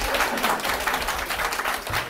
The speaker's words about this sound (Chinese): 听听你的掌声啊，那么大